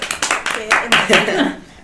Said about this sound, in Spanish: Vamos a darle por favor un fuerte aplauso a Jaime Cohen.